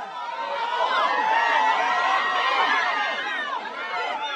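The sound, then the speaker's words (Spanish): A crowd of people running amid a steady wash of overlapping voices and shouts, loud and close throughout, with no single voice standing out. “¿Qué hace la gente corriendo?”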